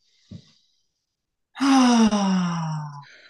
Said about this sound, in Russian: Расслабляющий выдох со звуком «ха», это помогает также нам и горло расслабить, и органы малого таза.